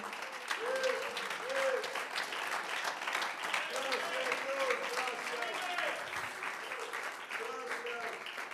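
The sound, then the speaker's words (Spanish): Steady audience applause offered to God fills the whole stretch, a dense, even patter of many hands clapping at a constant loudness, with a few raised voices and cheers mixed in. “Tiene un aplauso más hermoso para Él.”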